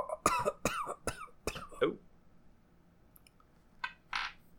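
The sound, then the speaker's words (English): A weak, raspy cough from a person thought to be a corpse sputters out in a short cluster of hoarse bursts, then fades into quiet breathy huffs. No one speaks. “a faint cough from what you thought was the corpse”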